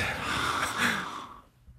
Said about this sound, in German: du darfst heute auch nur atmen die ganze Zeit.